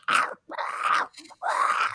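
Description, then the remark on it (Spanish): A voice imitates a gremlin from the film Gremlins eating the heads of gingerbread cookies, as if gnawing on bones: three loud, rough, growling bursts of crunchy noise, the second trailing into a brief sputter before the last one. No words are spoken. “Que hace un ruido, hace un ruido como si estuviese, no sé, masticando huesos.”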